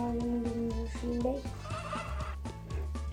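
Cartoonish chicken calls from a video game repeat in quick, wavering bursts over a steady, busy game backdrop, loud throughout.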